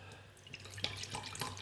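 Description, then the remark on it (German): Dark beer that looks like cola splashes and trickles into glasses in a quiet pour, with soft gurgling and a few bright drip-like splashes over a low background hum. “Stopp, stopp, stopp, um Gottes Willen, nicht so viel.”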